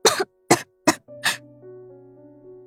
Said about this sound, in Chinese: 这句话还没说完，他就扯着肺部咳嗽了起来，咳得太剧烈了，他只觉得就差把肺给掏出来了。